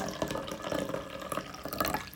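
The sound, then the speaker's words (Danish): Black coffee pours steadily into a cup for a couple of seconds, a continuous splashing trickle with small bubbling irregularities and no talking. “Det lyder faktisk næsten som en, der tisser, tror jeg. På ja. Nå, det er det ikke. Vi tisser ikke på podcasten. Vi får en gang kaffe.”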